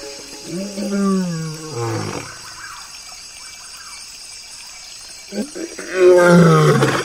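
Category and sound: animal, lion roaring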